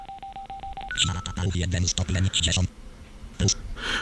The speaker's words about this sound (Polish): O, to są właśnie takie różne sygnały. O, wszedłem w menu, wyszedłem z menu, prawda?